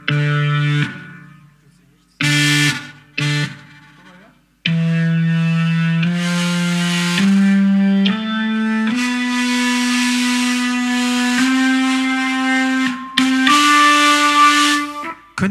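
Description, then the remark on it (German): A loud, low, buzzy tone is held at several different pitches with short pauses between, setting a drum vibrating with a rattling resonance. No one speaks. “Bei bestimmten Tönen fängt das Ding an zu vibrieren, bei anderen Tönen nicht.”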